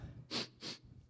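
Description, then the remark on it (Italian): Two quick, forceful sniffs in a row, drawing air sharply through the nose with a hissy, breathy rush and a short pause between them, showing how to smell an aroma, as with wine. “Anche col vino, quando si annusa, si fa”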